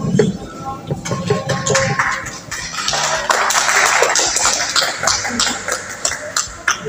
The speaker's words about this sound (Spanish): Así que por favor, lo recibimos con un aplauso, por favor.